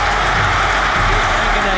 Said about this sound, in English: the excitement machine, listen to the crowd roar. If he kicks this, they'll rip this place down. And they've started to tear the place apart.